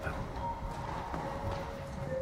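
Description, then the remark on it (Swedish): Hooves shuffle and stamp in place with a few scattered, uneven thuds over a steady background hum, fairly soft. “Du trampar på stället.”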